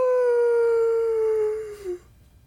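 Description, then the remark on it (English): A person's voice imitates a wolf howl, one long, steady note that slowly falls in pitch and breaks off with a short wavering dip, with no other sounds around it. “A wolf is a wolf”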